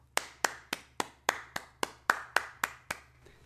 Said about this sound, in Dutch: Dat is mijn applaus voor de Mets coaching staff.